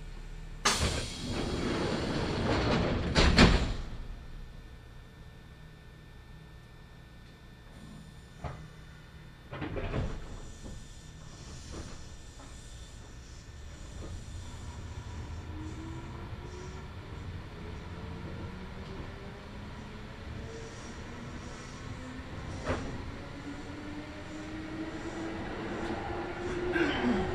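A Kintetsu Nagoya Line local train pulls away from Chiyosaki Station (E30) toward Shiroko after a few heavy thumps and clatters, then settles into a steady rolling rumble on the rails while a motor whine climbs steadily in pitch as it gathers speed.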